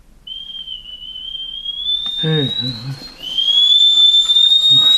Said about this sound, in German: Das Kaffeewasser kocht.